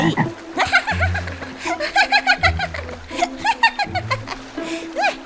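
A chorus of frogs croaks in quick, uneven bursts, overlapping ribbits with a throaty, almost chuckling quality, sustained over a low buzzing drone throughout.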